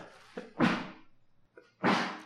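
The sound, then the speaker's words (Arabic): Two sneezes in a row, each a short catch of breath followed by a loud, explosive burst, about a second and a half apart, with no talking. “رحمك الله الحمد لله رحمك الله”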